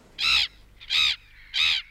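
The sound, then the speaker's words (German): Three harsh, squawking seagull calls ring out one after another at an even pace, each loud, with only faint background between them and no one talking. “Und jetzt noch drei Möwen.”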